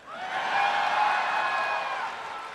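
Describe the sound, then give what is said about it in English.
An audience cheers and whoops together in a sustained burst lasting a couple of seconds, a loud swell of many voices that rises quickly, holds, then slowly tapers off. “My point in that little exercise of making you cheer is this we may be from different generations, but if your response is any indication, we have a lot in common”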